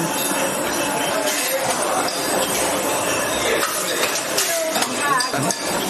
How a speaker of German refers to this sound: Also Sie hören jetzt sehr schön äh, äh, diesen Sound von der Kapselmaschine. Da werden die Kapseln eingeführt, beziehungsweise auch von der Korkmaschine. Hier wird jetzt ein Naturkorken reingepresst.